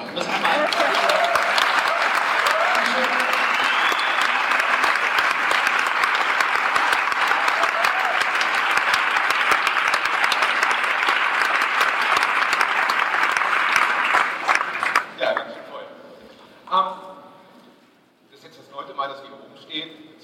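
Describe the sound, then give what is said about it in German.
A large audience claps steadily at the opening of an event in a dense, loud, even wash of applause for about fifteen seconds; it then breaks off abruptly and someone begins talking. “Ihr halt seid ganz schön mal kurz klatschen, dann sind wir auch ein bisschen ja, locker.”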